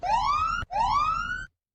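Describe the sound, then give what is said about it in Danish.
A siren-like alarm from a 5-minute timer video on YouTube sounds twice, each tone sweeping steadily upward in pitch for about half a second or more with a brief break between, loud and harmonic-rich, with no talking. “det er faktisk bare den første YouTube 5-minute øh, øh, timer, vi, øh, vi fandt.”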